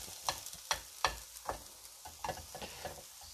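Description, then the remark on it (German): Onions and garlic are browned in a hot pan with a steady crackling hiss, broken by several sharp scraping strokes of stirring, with no voices. “so, dann können wir ja schon mal hier Zwiebeln und ähm, Knoblauch können schon mal angeröstet werden.”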